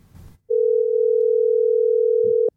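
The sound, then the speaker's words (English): An outgoing phone call to a person in America rings back with one steady, sustained two-second tone, loud and clear. A brief muffled rustle comes just before it starts. “It is actually ringing.”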